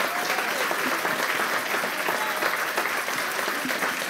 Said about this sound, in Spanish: Y si tú lo crees, dale un aplauso bien al Señor.